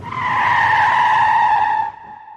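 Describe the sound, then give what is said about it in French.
A loud, sustained tire screech cuts through for about two seconds, a steady high-pitched squeal like a car skidding under hard braking, then drops away abruptly into low background noise. “Mais non, il n'y a pas eu de gros coups de frein.”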